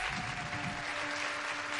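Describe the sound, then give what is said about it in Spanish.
An audience at an event claps for the event's logistics team, steadily in a dense, continuous wash of applause, with no clear pauses and a faint steady tone humming underneath. “Quiero que les aplaudamos”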